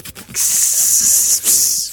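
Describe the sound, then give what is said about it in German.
A person hisses like a snake, a sustained airy sibilant sound lasting over a second, briefly breaking for a breath before continuing, fairly loud. “Okay, gut, ist notiert, die Schlange äh, macht keine Geräusche oder macht Schlangengeräusche, weiß ich gar nicht.”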